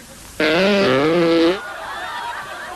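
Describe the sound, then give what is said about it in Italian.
A single loud, coarse fart sound lasting about a second, buzzy and wavering in pitch, apparently made by a voice imitating a humble porter's fart, coarse, natural and ordinary, followed by faint background noise. “Mentre invece quella di un umile facchino è così.”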